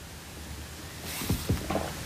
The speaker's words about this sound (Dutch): Even een slokje water.